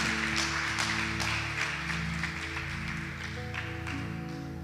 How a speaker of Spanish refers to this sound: Dale un aplauso porque eso es, eso es maravilloso.